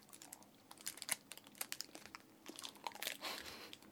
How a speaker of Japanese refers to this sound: いちごが入ってる、はい私の大好きなイチゴそうなんか周りがチョコでコーティングされてて中生クリームだったかないただきますうんもぐうんうんこれもぐもぐもぐもぐあおいしいうんおいしい